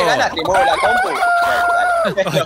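Loud clucking chatter gives way to a long, drawn-out rooster crow that holds steady for about a second before trailing off, with a few short clucks at the end.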